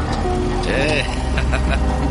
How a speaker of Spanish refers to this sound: Se retiran de la calzada al paso del coche.